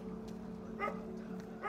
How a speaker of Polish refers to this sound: Kilkudziesięciu policjantów przeczesuje teren w poszukiwaniu śladów i narzędzia zbrodni. Dom i ulica odgradzane są policyjnymi taśmami. Słychać szczekanie tropiących psów.